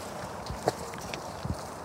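Konik horses walking close by in a grazing area shared with goats and cattle, their hooves clopping on the ground in a few soft, uneven thuds over a low outdoor hush, with no one talking.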